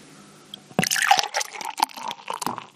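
Dark, deep black beer with foam glugs and splashes as it pours from a bottle, a bubbly, gurgling liquid sound that starts abruptly after a brief quiet moment and continues unevenly to the end.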